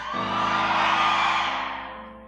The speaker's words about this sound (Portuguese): Aí Deus diz: gritai. Vamos lá? No três você vai gritar. Um, dois, três, gritai.